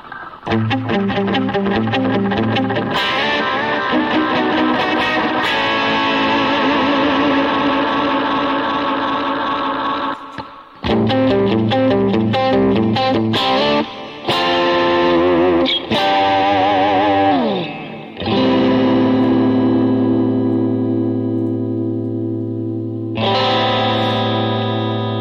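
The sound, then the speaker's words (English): Electric guitar played through a pedalboard of effects, currently using only a Siren Anvil compressor, with sustained distorted chords and shimmering, chorus-like tones, sliding pitches and brief stops between loud phrases, no one talking. “Here's my pedal board. Currently, I'm using. Uh, Right now, I'm just using this compressor here.”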